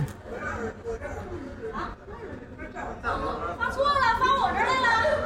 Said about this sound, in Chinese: 其实我现在能听到你那儿特别多的这种烟火气啊， 对呀， 大家都在聊 天，吹着夏吹着夏天的晚风